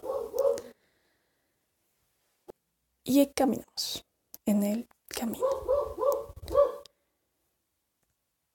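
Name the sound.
dogs barking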